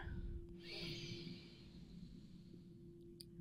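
A single deep breath drawn in, a soft rushing airflow lasting about a second, moderately loud, followed by quiet with a steady low hum underneath.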